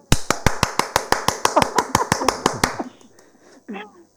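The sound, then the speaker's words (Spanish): Rhythmic applause: roughly sixteen sharp, evenly spaced claps in quick unison for under three seconds, with voices faintly underneath, then the clapping stops and a short vocal sound follows. “Ya ves, ya te están aplaudiendo antes de empezar.”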